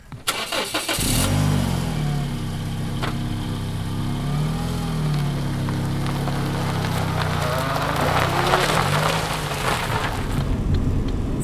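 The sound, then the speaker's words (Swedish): A car engine cranks and catches, then idles and revs steadily, a low harmonic rumble with shifting pitch as it pulls away, with faint background noise throughout. “Ja, hoppa in, det, det är lite eh, ostädat här. Det ska finnas säkerhetsbälte i alla fall.”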